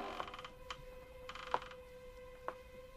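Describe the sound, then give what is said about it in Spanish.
A handful of brief, scattered creaks, about four, in a large dark room, landing at irregular intervals over a faint, steady hum. The sounds are quiet, with no voices present. “Y entonces, entonces oyó aquellos crujidos.”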